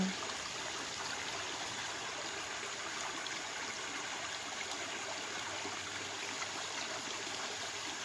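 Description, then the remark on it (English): A steady, babbling stream in the Ozarks forest flows without pause, its broad rushing hiss and gentle gurgles filling the scene at a moderate level with no voices. “and the sounds of the water babbling summon us to tap into our higher power.”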